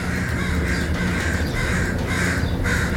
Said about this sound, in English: Good lord, those crows are mad.